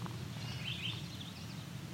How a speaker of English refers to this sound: That was a yellowthroat and a song sparrow both same time there.